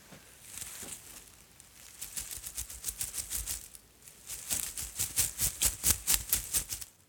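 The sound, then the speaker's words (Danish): Thin silk georgette fabric covered with many plastic sequins rustles and shimmers, with quick rhythmic bursts of bright, clicking rattles as the cloth is shaken, growing busier and louder toward the end. “Det her er faktisk også en silkegeorgette. Helt tynd silke. Men der er så en hulens masse plastikpaletter på.”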